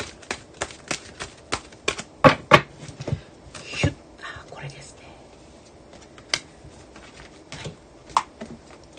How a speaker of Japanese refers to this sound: では奈々さんのカード今切っております